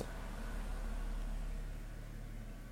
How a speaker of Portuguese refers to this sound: merda do autocarro que passou agora aqui na minha rua.